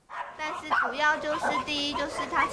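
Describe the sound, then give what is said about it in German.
Many dogs in an animal shelter in Taoyuan bark and yelp over one another in a steady, overlapping chorus, fairly loud, with high-pitched yips rising above deeper barks throughout. “Im Tierheim von Taoyuan landet, wer nicht mehr zum Spielzeug taugt.”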